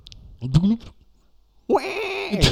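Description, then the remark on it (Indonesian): A person vocally imitates a whale call as a SpongeBob-style cartoon censor sound: a short rising hoot, a pause, then a louder, longer wavering moan, clear. “suara paus”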